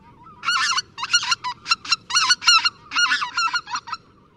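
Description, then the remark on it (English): A flock of migrating geese honks repeatedly in quick, overlapping bursts, loud, with a low rumble of background noise beneath the calls. “Geese migrate north between February and April, making stopovers along the way to rest and eat.”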